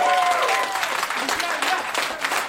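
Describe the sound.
An audience applauds with dense, steady clapping that fills the whole stretch at a fairly loud level, with a few cheers and voices mixed into the clatter.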